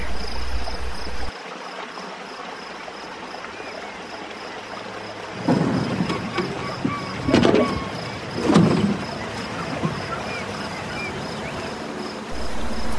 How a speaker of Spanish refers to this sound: El sonido del agua, tan calmado. Una noche arrullada por las ranas y las libélulas. Un silencio se escucha.